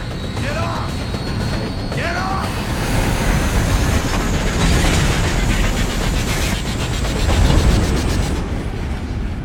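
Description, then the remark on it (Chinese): A train starts to move with a heavy, steady rumble and grinding mechanical noise. Short metallic squeals rise early on, and the clanking grows slightly louder toward the end. “而火车呢也缓缓启动”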